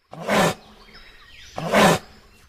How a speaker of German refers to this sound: Guck mal hier, da klingt der Kasuar wiederum ja mehr nach so einem fauchenden Tiger.